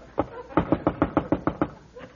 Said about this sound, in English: Ah, ah, this time he beat the door in.